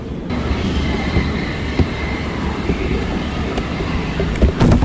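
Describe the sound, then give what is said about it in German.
Steady low rumble of a U-Bahn subway train at the Innsbrucker Ring U-Bahn station, with rolling wheel noise, faint metallic tones and a sharp clank near the end; no one speaks. “sind also jetzt an der U-Bahn-Station Innsbrucker Ring”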